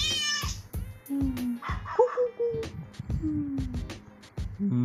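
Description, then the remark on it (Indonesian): A child imitates a cat while learning animal sounds, giving several short, rising-and-falling meows over a steady, busy background of low rhythmic sounds. “bunyi bunyi meong gitu”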